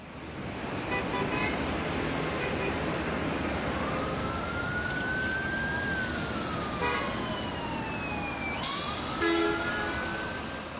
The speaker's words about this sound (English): but okay, so think about the sound of New York, right? Yeah, something like this.